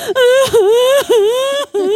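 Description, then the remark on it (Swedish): A voice loudly imitates exaggerated ugly sobbing, with three drawn-out wailing cries broken by sharp catches of breath, alone with no words spoken. “Så då började jag gråta och jag, det var liksom inte så åh jag är så rörd, utan det var verkligen ugly cry.”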